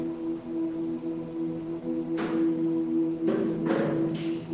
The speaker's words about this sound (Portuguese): Cuidado, mano, que ele está abrindo a cadeira.